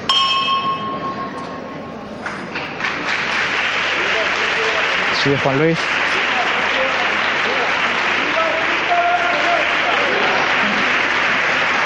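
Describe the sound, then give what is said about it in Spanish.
Sustained applause from a large crowd with a church bell ringing out over it in repeated metallic tolls, marking the first lifting of the Santísimo Cristo de la Clemencia in a procession, while a voice briefly speaks near the start. “Escucháis aplausos, la, toque de la campana, se acaba de producir la primera levantada del Santísimo Cristo de la Clemencia y comienza a interpretarse una saeta.”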